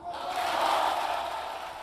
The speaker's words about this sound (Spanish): Anuncio tras el cual ha explotado la euforia en la bancada socialista, también entre los diputados eh, de Sumar, largos aplausos un Pedro Sánchez muy, muy sonriente que ha abrazado uno por uno a los diputados y diputadas en el hemiciclo